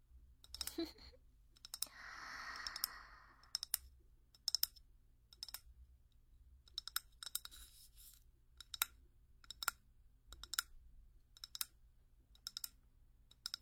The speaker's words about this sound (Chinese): 我刚刚在敲的这个玻璃瓶子啊，里面放的全都是长杆的火柴。